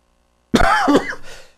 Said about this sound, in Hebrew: אני פשוט מוריד את המיקרופון כשאני משתעל, שלא להבהיל אתכם, אז תבינו למה פתאום יש שקט.